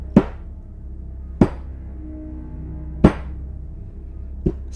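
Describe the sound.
Four heavy, slow thuds spaced over a second apart, imitating someone stomping down stairs with weighty, dragging steps. Each impact is sharp, with a low hum in between and no talking.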